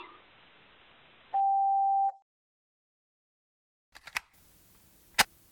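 A single loud, steady electronic phone tone holds for under a second, followed after a pause by a few sharp clicks and one final crisp snap, like a handset being handled and hung up.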